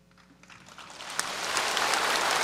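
Audience applause at China's commendation ceremony for the fight against COVID-19, following Chinese President Xi Jinping's words 'Go, hot dry noodles' for Wuhan, starts faintly and swells into dense, steady clapping that grows louder across a couple of seconds, with no voices over it.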